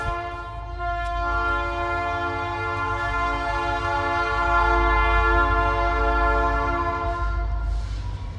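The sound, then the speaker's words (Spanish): A train horn blares continuously over the deep rumble of a passing train, sustained and loud for several seconds with steady harmonic tones, no voices present. “ah espérame tantito porque tren.”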